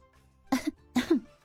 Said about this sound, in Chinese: 突然，阿珂身后传来几声咳嗽声。